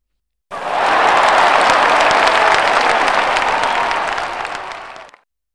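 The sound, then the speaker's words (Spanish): Loud, sustained applause from a crowd for the winner, dense clapping rising quickly and holding steady for about five seconds before fading out. No one speaks over it. “Un aplauso para la ganadora.”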